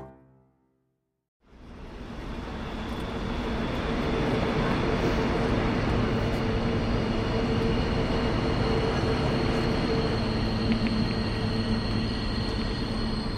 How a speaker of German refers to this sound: Morgens um halb zehn in Deutschland, nahe Hamburg. Züge fahren ruhig ein, aus denen eine Handvoll Fahrgäste steigen.